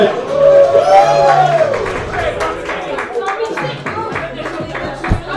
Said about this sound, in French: Merci, merci tout le monde. Une bonne applaudissement pour le public.